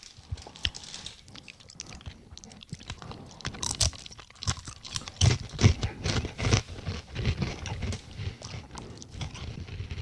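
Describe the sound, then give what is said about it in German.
Crunchy cheese crackers being chewed, a steady run of loud, crisp crunches and munching bites that grows busier after the first few seconds, with no talking. “Und wenn du die Packung gegessen hast, hast du 800 Kalorien verputzt.”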